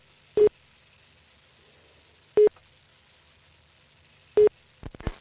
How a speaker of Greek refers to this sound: Και χτυπά, αρχίζουν και χτυπάνε τα τηλέφωνα τώρα γιατί έχει γίνει το ατύχημα.